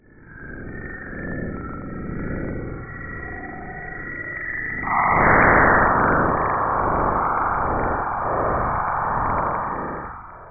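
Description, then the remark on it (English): A harsh, rumbling hiss of sonified space plasma waves recorded by the Cassini spacecraft as the solar wind hits Saturn's magnetic field, with wavering tones that suddenly burst into a louder, denser roar midway and continue with pulsing, throbbing surges; no voices. “As the winds hit, they create something like a sonic boom, a powerful blast that was recorded by the Cassini satellite.”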